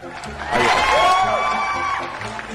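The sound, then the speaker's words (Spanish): An audience at a rap performance breaks into applause and cheering, a dense wash of clapping and shouts that swells quickly, holds steady with rising whoops, then eases slightly toward the end. “si no me aplaudís, me levanto y me voy.”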